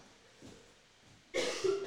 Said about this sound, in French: Ah, vous avez entendu quelqu'un tousser là ou pas Est-ce que vous avez entendu quelqu'un tousser Ah, qui retousse Est-ce que vous avez entendu quelqu'un tousser Ah, tu t'as le droit de tousser, hein